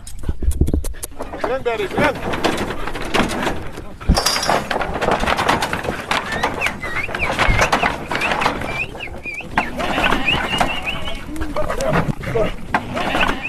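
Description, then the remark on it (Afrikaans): A flock of sheep being driven from icy-cold Sutherland down to the slightly warmer lower Karoo, with many overlapping bleats and a busy, continuous shuffle of hooves, fairly loud, while people's voices call out now and then. “… trek skaap van bo uit die yskoue Sutherland na die bietjie warmer onder Karoo.”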